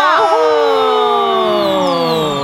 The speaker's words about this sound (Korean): 피디님 함성 효과음 준비해 주시고요.